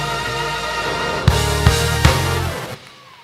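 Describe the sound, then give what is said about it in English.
A church audience cheers and shouts loudly over sustained band music when asked to make some noise, with a few heavy drum hits punching through before the noise suddenly drops away near the end. “Just in case you're watching, I asked the church, even though we're in a pandemic, how many y'all are experiencing a better life this year than you have last year? Make some noise!”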